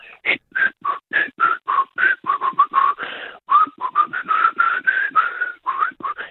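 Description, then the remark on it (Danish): A person whistles a lively, fast melody, mixing quick staccato notes with warbling, sliding phrases, with no talking. “Så kan jeg fløjte ligesom øh, …, ….”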